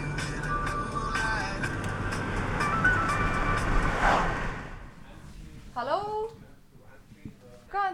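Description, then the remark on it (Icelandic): A car drives along a road on a drive to Snotra Hostel in Þykkvibær, with a steady engine hum and road rumble that fades out after about four seconds, followed by someone talking. “Það var auðvitað ekki annað í stöðinni en að skella sér í bíltúr.”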